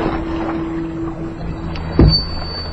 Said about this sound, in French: Je rame encore un peu.